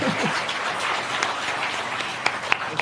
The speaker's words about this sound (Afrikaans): Ek wou juist gevra dat julle moet vir my hande klap.